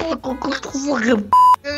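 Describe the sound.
A man talks, then a single loud, steady censorship bleep tone cuts in over profanity for about a quarter second before his voice resumes.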